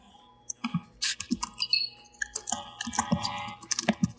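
Typing on a computer keyboard: irregular bursts of clattering key clicks, fairly clear, running for a few seconds with no voices.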